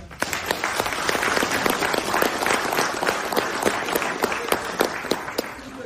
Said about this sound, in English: They've been eh, balling this year. All the kickers. Stand up, guys. All of us. All you guys. Clap them up, guys.